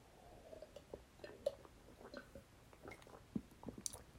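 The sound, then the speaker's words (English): Soft wet mouth sounds: a few small sips and gulping swallows of water with faint clicks, scattered irregularly over a quiet background with no talking. “I'm gonna take a sip of water because I've been talking for 30 minutes, goddamn.”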